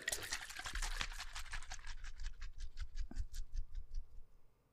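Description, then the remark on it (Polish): Carbonated yerba mate cola fizzing after being shaken hard, a dense hiss of crackling bubbles that starts busy and loud, then thins into scattered pops as it settles, with no voices. “To jest połączenie yerby A, z kolą. Wiem. I to jest, działa lepiej niż energetyk i to jest gazowane, więc yy, drodzy słuchacze, wy tego nie widzicie i nie, za, nie zobaczycie, ale mam nadzieję, że usłyszycie.”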